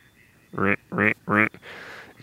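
Three loud, harsh, nasal quacks in a steady rhythm from a gadwall duck, followed by a softer breathy rasp; no one speaks over them.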